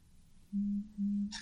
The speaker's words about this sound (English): Sorry for my phone going off. I was not expecting that.